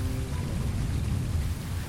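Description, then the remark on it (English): Steady rain patters on a tent on Stratton Mountain, Vermont, in a dense, continuous hiss, with a soft low rumble underneath and no voices, holding an even loudness throughout. “… was sitting in a tent on Stratton Mountain, listening to the rain”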